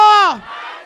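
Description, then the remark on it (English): A crowd raising their glasses shouts the word "martini" together as a toast after a count of three, in a loud, drawn-out cry that falls in pitch, then breaks into a brief, softer murmur of crowd noise. “Quand je dis 1, 2, 3, vous dites martini.”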